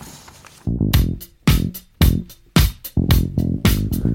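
A punchy, repeating bass guitar riff drives a rock groove, with sharp drum hits marking each phrase; loud, close and rhythmic, with no voices over it.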